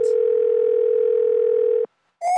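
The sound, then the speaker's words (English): A steady, loud telephone dial tone of an outgoing call hums continuously for almost two seconds, then cuts off abruptly; after a short silence a brief, higher-pitched electronic tone sounds at the end. “So we're going to call her up on the phone and see if we can ask her some questions.”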